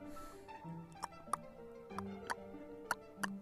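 A Ford car's turn signal indicator ticks in a steady tick-tock rhythm, about six crisp clicks in alternating pairs, over a low, steady hum with no one speaking.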